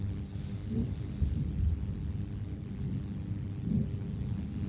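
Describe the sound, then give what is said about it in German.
Low, booming rumbles roll in from far away, heavy and muffled like distant artillery, swelling a few times over a steady dull background hum with no voices. “Hearing what sounds like maybe a gunship or artillery in the background.”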